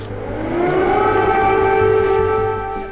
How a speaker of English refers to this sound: And as if to underscore just how active it still is, just as Biden and Zelensky were stepping out of St. Michael's Cathedral, air raid sirens rang out.